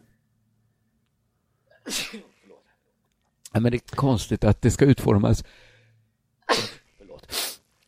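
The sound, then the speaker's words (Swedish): Sharp sneezes: one burst before a man briefly talks, then two more in quick succession right after he stops. “hör det bara lite corona här.”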